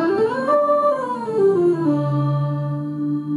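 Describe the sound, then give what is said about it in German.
A processed, reedy vocal tone with an accordion-like buzz, sliding down in pitch before settling into a steady sustained note, heard alone and fairly loud for a few seconds. “Klingt fast wie ein Akkordeon.”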